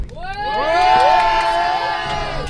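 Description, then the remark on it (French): Young people from Lyon cheer and whoop together aboard coach bus 10C on a ten-hour road trip to Burgos, Spain, many high voices rising and swelling into one loud, sustained roar before tapering off slightly at the end. “Alors bienvenue dans le bus 10C. L'ambiance. Le bus de l'ambiance.”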